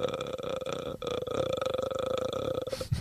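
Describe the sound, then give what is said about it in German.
A voice imitates the ghostly, rattling croak from the Japanese horror film The Grudge: a steady guttural creak of rapid throaty clicks held for about three seconds, with one brief break partway through. “das war dieses Geräusch bei The Grudge.”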